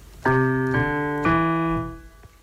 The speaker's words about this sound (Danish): nu øh, slår jeg nogle toner an her på klaveret, og så er det meningen, at du skal prøve at øh, synge de samme toner, altså lære at intonere. Det lyder sådan her.